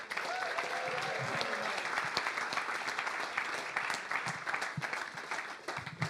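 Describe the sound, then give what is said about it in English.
Sustained applause from an audience, a dense steady patter of many hands clapping at once, fairly loud and continuous for several seconds with a faint murmur of voices beneath. “Let's hear it for Anna, shall we?”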